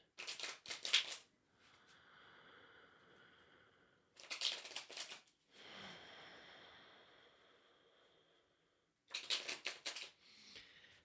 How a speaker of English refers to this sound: Just take a couple deep breaths, connect to the cards. I'm going to shuffle them. I'm going to shuffle these cards real good, babies.